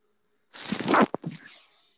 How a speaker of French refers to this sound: À tes souhaits.